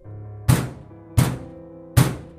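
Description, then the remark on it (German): Three heavy, dull knocks strike a wall at a slightly uneven pace, each a deep booming thud that fades quickly, with a faint low hum lingering between them. “Robert wirbelte herum, als es ohne jede Vorwarnung direkt neben ihm heftig gegen die Wand klopfte.”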